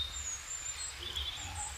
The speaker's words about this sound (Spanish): Centenares de gorriones gorgojeaban felices en el exterior, sobre las ramas de una higuera que estaba cerca.